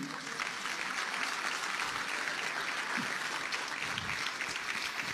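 An audience at a church service applauds for Christ, a dense wash of many hands clapping that fills the whole clip at an even, moderate level with no pauses or voices on top.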